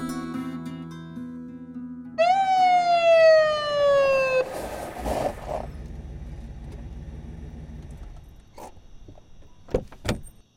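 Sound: police car siren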